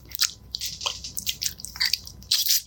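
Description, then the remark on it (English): A voice imitates loud, wet food chewing: a rapid, irregular run of smacking, squishy mouth noises with crisp, hissy clicks, continuing without pause for a few seconds. “The sound of food being eaten going”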